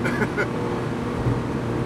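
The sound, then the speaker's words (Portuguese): A steady low engine hum and road rumble fill the cabin of a moving Italian car, constant and moderately loud, with a couple of brief higher tones near the start. “Agora a pessoa que está tá ouvindo aí, nós estamos um pouquinho silenciosos, é. vocês estão ouvindo o carro.”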